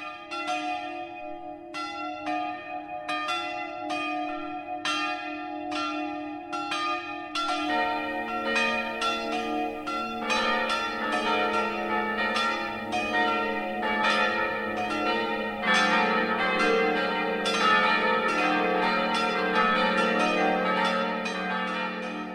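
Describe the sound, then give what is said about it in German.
Noon church bells of the Evangelical Lutheran church St. Leonhard in the St. Leonhard Schweinau district of Nuremberg ringing steadily, several bells of different pitch overlapping into a rich, continuous peal, with more bells joining partway through. No voices, just the loud, resonant clanging carrying on throughout. “Das Mittagsläuten kommt aus dem Nürnberger Stadtteil St. Leonhard Schweinau.”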